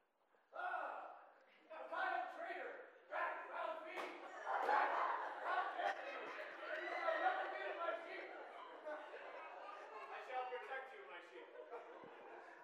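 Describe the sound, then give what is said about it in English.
A group of people loudly imitate a wolf attack, a chaotic mix of growls, snarls and yelps that starts abruptly and keeps going in an overlapping, rowdy din. “Cue the wolf.”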